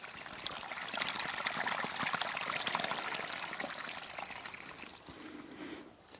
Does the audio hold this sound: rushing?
yes